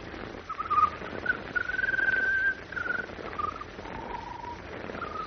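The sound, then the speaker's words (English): A bird sings a peculiar song of drawn-out, whistled notes, each holding a fairly steady pitch before shifting slightly higher or lower, moderately loud over a soft hiss, with no talking. “When the bird started to sing, her pulse became much stronger.”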